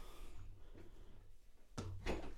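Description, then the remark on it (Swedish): Faint room tone, then near the end a door opens with a sudden clunk as two guests walk straight in, with a rush of rustling movement, fairly loud. No one speaks. “Nej, de gick ju bara rakt in.”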